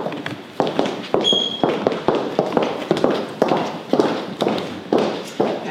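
Steady footsteps stride along at an even walking pace, like walking on a catwalk, about a dozen sharp heel strikes landing rhythmically, with a brief high tone near the start and no talking.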